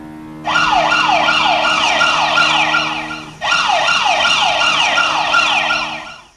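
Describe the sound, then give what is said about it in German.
A loud electronic earthquake monitoring alarm siren in Naples, Italy, set off when the many small earthquakes measured at the Phlegraean Fields exceed certain values, wailing in rapid, repeating upward sweeps in two long bursts split by a brief pause, clear with no voices. “So klingt es, wenn die vielen kleinen Erdbeben, die sie in Neapel messen, bestimmte Werte übersteigen.”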